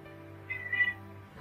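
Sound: cat meowing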